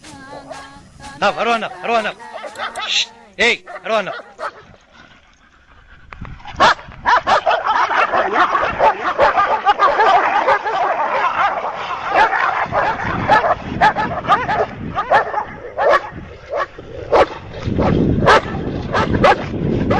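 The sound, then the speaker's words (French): A pack of dogs, set loose on a man, bark, yelp and snarl as they attack in a frantic, overlapping frenzy that grows denser and more chaotic after the first few seconds, loud, with whimpers and sharp yips mixed in. “Mais alors que je me dirige vers ma fidèle Peugeot 103 pour reprendre la route, ce fils de pute de Santiago décide de lâcher les chiens sur moi.”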